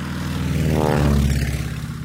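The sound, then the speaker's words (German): A propeller airplane drones steadily overhead, its engine hum swelling and then easing as it passes, with no voices; the plane is flown up toward the clouds to influence the weather. “Im schlimmsten Fall fährt man hier zum Flugplatz, holt die Flugzeuge raus und fliegt den Wolken entgegen.”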